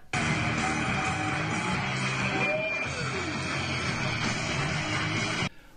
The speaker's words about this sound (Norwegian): Og det er lyden av målmusikken i Grimstad.